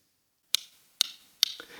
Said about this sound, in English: Yeah, so when I go into a new space, I just click like that. And that already gives me inf information about the space, you know, how big it is, how small it is, the structure of the room, uh, you know, the how sparsely the room is arranged